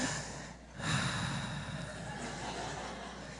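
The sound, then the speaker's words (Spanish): A person imitates slow, heavy breathing heard over a telephone call, a long breathy exhale swelling up after a brief pause and trailing on steadily, with no words spoken. “Y no estás escuchando el respira, y luego empieza el famoso, no, cuelga tú.”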